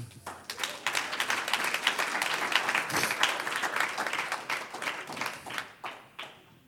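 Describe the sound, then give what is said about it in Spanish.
A church audience breaks into sustained applause for the Lord, many hands clapping in a dense, crackling wash that holds steady for several seconds before thinning out with a few scattered final claps. “Un aplauso al Señor.”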